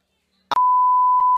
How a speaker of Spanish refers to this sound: voy, a hacer, un pitido. Es que así queda súper guay.